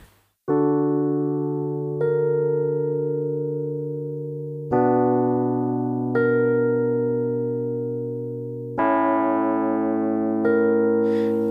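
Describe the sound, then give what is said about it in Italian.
A sustained keyboard-like chord progression of about six struck chords, each ringing and slowly fading before the next, with an added A sharp clashing on one of the chords and making the harmony sound dissonant; no voices. “Sentite l'effetto che fa questo La diesis su uno di questi accordi.”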